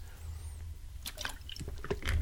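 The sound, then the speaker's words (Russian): A plastic water bottle being opened: a short series of crinkling crackles and clicks as the cap twists off, with a faint slosh of liquid and no talking. “Я открою воду, потому что горло уже пересыхает от нервов.”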